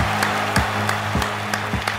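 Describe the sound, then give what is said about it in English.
Steady applause from a crowd: a dense, hissing wash of clapping with regular louder bursts, fairly loud and with no voices over it. “Thunderous applause, Dave. Thunderous applause.”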